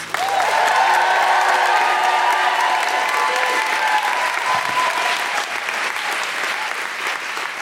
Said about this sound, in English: Please start clapping, cheering, and welcome to the stage your wonderful host, Deborah Frances-White.